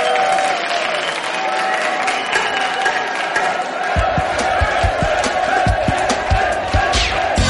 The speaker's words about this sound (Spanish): ¡Un aplauso para ella!